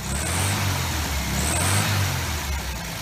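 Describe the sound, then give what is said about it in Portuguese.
A Volkswagen Beetle engine starts and runs with a low, throaty rumble, its pitch rising and falling slightly as it revs. Fairly loud, steady throughout, with no one talking. “O masculino é um fusca. Botou gasolina, ligou, ele vai.”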